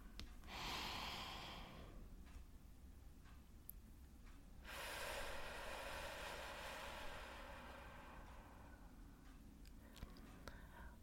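A slow, deep breath drawn in through the nose with eyes closed, followed after a short pause by a long, soft exhale; quiet and unhurried, with no talking.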